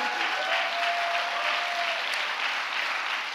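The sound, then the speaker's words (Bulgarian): A church audience claps steadily, many hands making a dense, even patter that holds at a constant level throughout, with a faint high tone drifting underneath and no voices. “О, хайде, ако ръкопляскаш, ръкопляскай, като че ти ще.”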